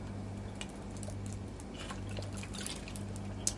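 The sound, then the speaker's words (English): Someone takes quiet sips of water, with soft wet clicks and small swallowing sounds scattered over a steady low background hum, with no talking. “Had to sip a little water.”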